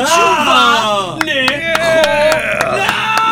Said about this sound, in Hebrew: יפה כפיים, מאוד. כפיים.